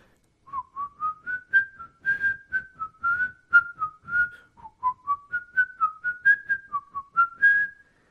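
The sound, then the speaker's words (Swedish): A person whistles a short, wavering melody, about eight seconds of clear tonal notes rising and dipping in a steady, sing-song rhythm, with no talking over it. “oh, det här kan låta hemskt för öronen, men han visslar så här.”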